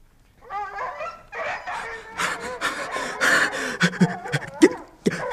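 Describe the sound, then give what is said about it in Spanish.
Several dogs bark and yelp excitedly, a rapid overlapping volley of sharp barks with some whining and panting, growing louder and more frantic toward the end. “Ya se ocuparán los perros de él.”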